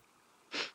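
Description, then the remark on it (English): A single short, breathy burst, like a quick sneeze, bursts out of a quiet background, sharp and hissy with no voices around it. “Bless you, darling.”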